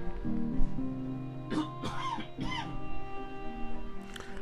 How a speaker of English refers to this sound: Allergy coughs again. I'm lo- see, there's what I was talking about, losing my place.